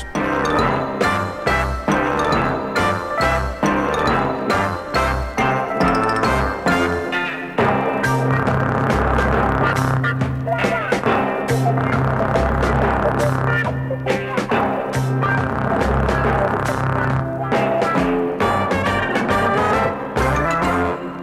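A brisk orchestral march from the score of the film The Great Dictator plays on its own, with steady rhythmic beats, bright tinkling accents and a sustained low bass line, loud and unbroken throughout.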